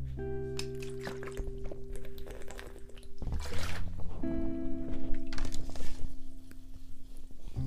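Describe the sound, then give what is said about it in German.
Close-up liquid sounds: water pours with a steady gurgling hum, followed by a few soft gulps and small splashes as someone drinks. No one speaks. “Ich habe gerade mit dir Wasser getrunken.”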